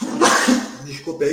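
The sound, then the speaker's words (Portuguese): A single sharp, explosive sneeze bursts out, and a man then speaks a brief apology. “Saúde, galera. Saúde, saúde.”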